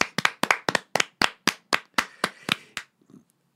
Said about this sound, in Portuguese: Palmas. Palmas.